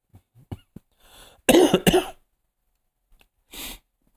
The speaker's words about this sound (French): je tousse. Ben oui.